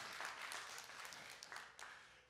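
audience clapping

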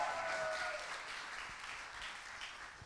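audience applause

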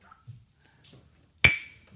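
glasses clinking

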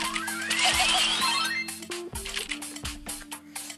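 water dripping

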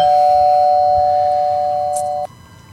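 doorbell ringing

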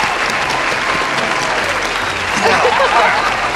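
applause

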